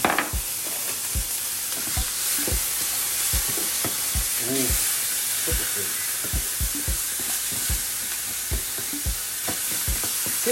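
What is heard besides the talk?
bacon sizzling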